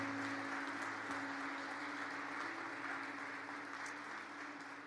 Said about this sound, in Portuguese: Vamos aplaudir a Deus.